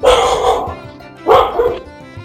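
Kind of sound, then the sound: animal, dogs barking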